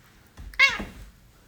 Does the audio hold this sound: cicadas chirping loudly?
no